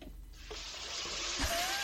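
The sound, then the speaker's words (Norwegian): Water gushes from a tap into a glass as someone pours themselves a drink, a steady hiss that starts abruptly, with a faint rising tone near the end as the glass fills. “Jeg tar meg litt vann, jeg.”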